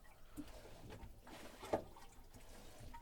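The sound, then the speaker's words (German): Seawater being hand-pumped into a boat toilet bowl, with the lever turned to the left: quiet watery gurgling and sloshing with a few uneven pump strokes, one sharper than the rest, and no voices. “so eine ganz komische Toilette, weil du kannst nicht einfach spülen am Boot, das ist so eine Pumpe.”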